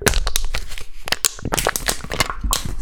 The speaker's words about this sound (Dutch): Ja? Oké. Goed, dus dan gaan we nu het blikje kraken. Ben je er klaar voor? Ik ben er klaar voor, zeker. dan gaan we nu kraken.